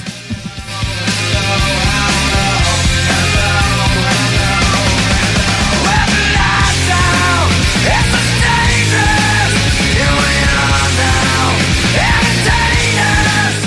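A loud grunge rock song plays steadily throughout, with dense distorted guitars, a driving bass line and drums, and a raw, strained vocal riding on top.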